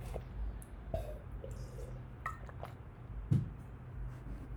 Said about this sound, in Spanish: a tomar un poquito de agua.